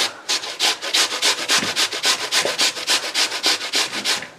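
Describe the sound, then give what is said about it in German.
Rhythmic rasping strokes of potatoes being grated on a grater, roughly twenty quick back-and-forth scrapes in steady succession, bright and gritty, with no talking; the grated potatoes quickly release water. “man merkt auf jeden Fall, dass die Kartoffeln, wenn man die dann über die Reibe zieht, relativ schnell dann auch einfach Wasser ziehen.”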